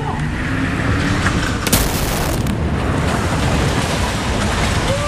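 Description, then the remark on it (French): A stunt sports car with a dummy playing the hero inside crashes between two trucks during a film shoot: a steady roaring rumble is split by a loud, sharp crashing burst midway through, then the heavy noise rolls on without any voices. “Et puis d'un coup, elle est vraiment passée entre les deux camions”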